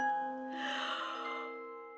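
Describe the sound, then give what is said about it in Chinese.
A big, drawn-out yawn by Aunt Hippo (a hippopotamus), a breathy exhale that swells after a moment and slowly fades over about a second, with a steady, sustained tonal ringing underneath throughout. “这个时候，正赶上河马大婶儿打了一个大哈欠。”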